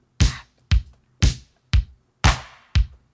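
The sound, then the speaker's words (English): A drum machine pattern of punchy LinnDrum kick, LM1 snare and 808 clap hits, with the claps on beat four of every bar, six sharp, loud beats in a steady alternating rhythm, dry, with no voices or other sounds. “Okay, so we're playing LinnDrum kick and LM1 snare.”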